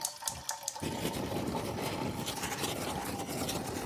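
Water runs steadily into a pot to be boiled for coffee, a little before 4 a.m., a continuous rushing pour that starts after a brief quiet moment and keeps going without pause. No one speaks.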